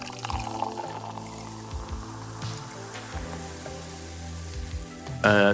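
Champagne pours into a glass aboard a Concorde with a steady, gurgling flow and rising fizz, ending in a brief louder burst of bubbling near the close.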